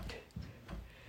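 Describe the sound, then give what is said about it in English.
A bedroom door knocks softly against its frame in a steady rhythm from bouncing, three muffled low thuds with faint clicks, fairly quiet, with no voices. “No, it's the front. It's the door.”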